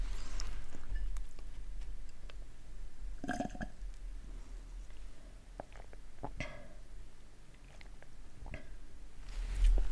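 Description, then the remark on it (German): Two wet gulping swallows of a person drinking, with the throat held very close to the microphone, a few seconds apart, with faint mouth and throat clicks between them against a low hiss. “waren gerade zwei Schlucke”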